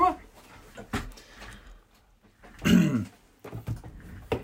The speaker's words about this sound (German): Ja, der Räusper war das Geräusch von heute.